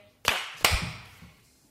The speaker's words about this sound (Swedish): om vi klappar igång det här först. Ja, just ja. En, två, tre,